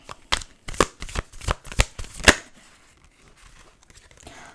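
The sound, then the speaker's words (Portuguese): Stiff playing cards, hard to shuffle because they are still stiff, being shuffled in a quick series of sharp, crackling bursts over about two seconds, then a faint rustle as the handling stops. “Estas cartas ainda estão um bocado duras, é difícil de baralhar.”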